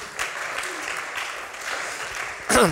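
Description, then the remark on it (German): An audience claps steadily in a dense, even wash of applause, then a voice begins speaking over it near the end. “Ihr dürftet euch selber einen Applaus geben, wenn ihr wollt.”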